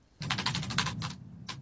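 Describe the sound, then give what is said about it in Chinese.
Peppa Pig taps on Mummy Pig's computer keyboard in a quick flurry, about eight rapid clicks in a burst, then a short pause and two more taps, with a low steady hum underneath. “佩奇又敲打键盘。”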